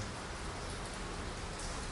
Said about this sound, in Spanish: En medio de la lluvia, Señor, guárdanos y protégenos, te lo pido en el nombre de Jesús.